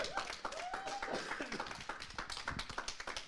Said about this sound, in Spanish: Si va a dar un aplauso, de lo fuerte, porque es el rey.